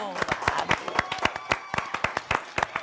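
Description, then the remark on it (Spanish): A small group applauds the team, clapping steadily for a few seconds, sharp overlapping claps in an uneven rhythm, fairly loud, with voices murmuring underneath. “Oigan, este qué aplausos a todo el equipo.”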